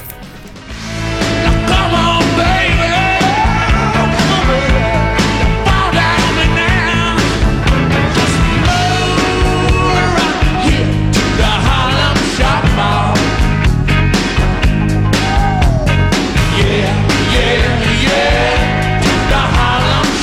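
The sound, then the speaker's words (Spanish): A band's rock song plays on a radio programme, loud and steady after a brief quiet opening, with driving drums, dense guitars and a melodic line running through the whole stretch, no talking over it. “estamos escuchando … de los …”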